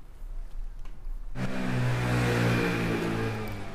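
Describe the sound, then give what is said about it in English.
A low traffic rumble gives way to a moped engine revving, loud and buzzing, with sustained, aggressive horn-like beeping over the street noise as an Italian local rider darts through midday traffic in Milan. “Oh, that's that's the aggressive beeping coming from a suspicious suspiciously handsome Italian local as he darts through midday Milano traffic.”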